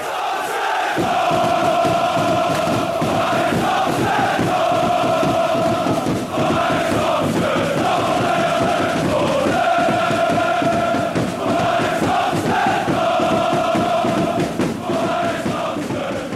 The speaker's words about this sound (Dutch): Op het plein, heel veel supporters, eh, muziek, dans, zang, alles erbij.